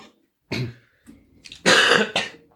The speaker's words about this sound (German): Entschuldigung, da kam der erste Huster. Ich hoffe, mein Mikrofon ist äh, gut genug gedämpft, um das nicht zu hören.